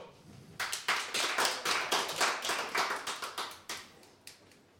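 A short burst of applause from a small audience at a Radio Total Normal event, welcoming a speaker: sharp overlapping claps starting after a moment of quiet, holding steady for about four seconds, then tapering off. No one speaks.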